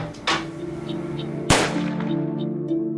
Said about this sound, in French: Dès le premier coup de feu, dès le premier meurtre,